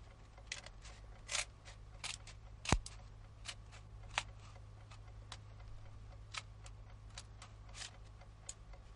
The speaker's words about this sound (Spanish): Toma las tijeras y corta los vendajes que sujetan la vía de mina.